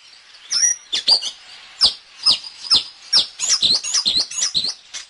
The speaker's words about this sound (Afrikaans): Wanneer laas het jy 'n Jan Groentjie in jou tuin gesien? Wel, dis die geluid daarvan, 'n Jan Groentjie.